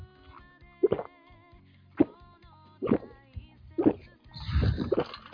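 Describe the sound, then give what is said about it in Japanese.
Glasses clink together in the last toast of the year, four bright, separate taps spaced about a second apart, each leaving a faint ringing tone, followed by a brief burst of clattering and handling noise near the end. “というわけで、ラスト乾杯をしましょうか。”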